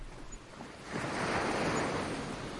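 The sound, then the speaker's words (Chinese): A broad, hissing wash of surf from the sea at night in the rain swells up after a quieter moment and holds steady, with a low rumble underneath and a faint breeze. No one speaks. “实际上，我今天就是来看雨的，好久没看过晚上下雨的大海了。”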